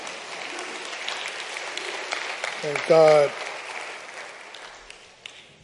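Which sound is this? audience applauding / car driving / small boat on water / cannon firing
audience applauding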